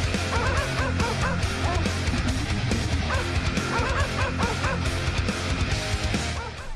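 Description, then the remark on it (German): Dogs bark in rapid bursts over loud, dense heavy metal music, the yelps woven into the driving rhythm throughout; the track plays continuously at full volume with no talking. “Heavy Metal mit Hunden”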